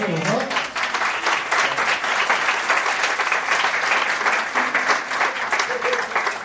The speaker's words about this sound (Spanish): ¿Hacemos un aplauso o no? Sí.